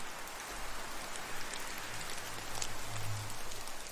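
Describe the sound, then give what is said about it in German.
Steady rain falling, a soft continuous patter of drops on a surface with a low rumbling undertone, even and unbroken throughout, with no voices. “Dieser Ort, an dem du bist, schützt dich vor dem Regen und lässt gerade so viel Geräusch und ganz sanften Windzug zu dir dringen,”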